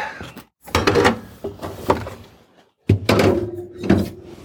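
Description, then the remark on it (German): A refrigerator door thuds shut amid a few dull knocks and rattles as opened milk is put back into the fridge, with a heavier bump near the end, moderately loud with no talking. “So, die angefangene Milch zurück in den Kühlschrank.”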